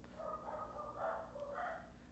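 The speaker's own dogs bark and yip, a steady run of fairly faint, overlapping barks continuing for a couple of seconds with no one speaking.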